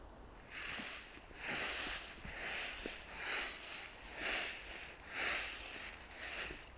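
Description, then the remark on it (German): Steady footsteps crunch and rustle through dry fallen leaves in a forest, about eight even paces in a row, fairly crisp, with no voices. “Bei jedem Schritt, den du jetzt gerade machst, hörst du das Laub rascheln.”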